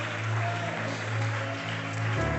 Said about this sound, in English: Clap your hands and shout hallelujah.